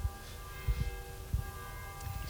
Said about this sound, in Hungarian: Köszönjük szépen a figyelmet, a harangszó véget vetett a, a beszélgetésünknek.